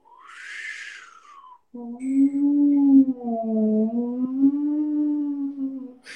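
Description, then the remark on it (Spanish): A voice imitates the wind by reciting the mantra 'Gu' as a visualization exercise: a breathy, falling whoosh, then a long, steady low hum that wavers slightly in pitch for several seconds, like a moaning gust, with no other sounds. “Es como haciendo el sonido del viento.”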